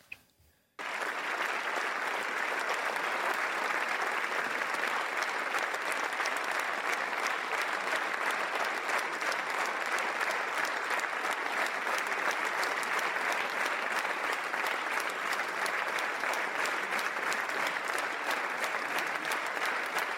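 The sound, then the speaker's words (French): Sustained, dense applause from a large crowd in parliament fills the space after a brief quiet start, steady and enthusiastic throughout with no pauses: a long standing ovation for King Charles III, with ecologists, communists and socialists on their feet. “Hein, les écolos, les communistes et les socialistes étaient debout pour ovationner le roi Charles III”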